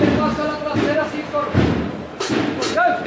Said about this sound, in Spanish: Ahora suena el tambor templado de la banda que viene de los remedios de la Hermandad de las Cigarreras.